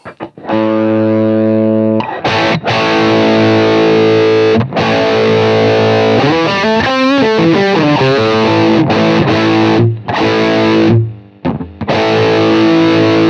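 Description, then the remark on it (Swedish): A loud, heavily distorted electric guitar through an amp, its boost turned up from zero to twelve o'clock and then to max, rings out sustained, buzzing chords, with a wavering bent-note passage in the middle and a few brief pauses. No one speaks. “Och det är ingen jättemycket boost i den här utan jag, jag, jag, jag vrider upp den från noll till klockan tolv och sen på max får vi höra.”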